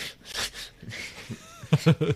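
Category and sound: vocal imitation, voice imitating heavy breathing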